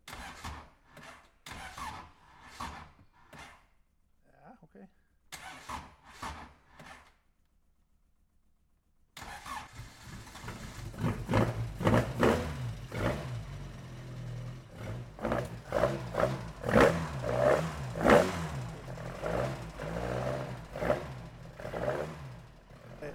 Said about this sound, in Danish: Det er, en, det er en meget hårdt tunet motor, så derfor den, den kommer i gang, selvom det lyder som om, uh, her kommer den i gang, men det gør den.